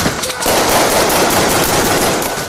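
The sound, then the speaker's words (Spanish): A sustained burst of rapid automatic gunfire as drug traffickers shoot at each other in a neighbourhood over drug-selling corners, loud and continuous for a couple of seconds with rough, crackling texture and no voices. “Se meten bala entre ellos para quedarse con las esquinas del negocio.”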